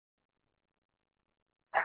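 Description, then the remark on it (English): After a stretch of silence, a small pet chihuahua gives a single short, sharp bark right at the end, fairly loud, cut off abruptly. “my dog just amen me on that. My little chihuahua said, Yeah”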